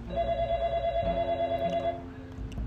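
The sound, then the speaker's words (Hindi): An old landline telephone bell rings steadily for about two seconds, a bright, sustained tonal jangle, then fades into a low hum. Fairly loud, with no voices. “मित्रों फौज जी के दौर में लैंडलाइन टेलीफोन की याद”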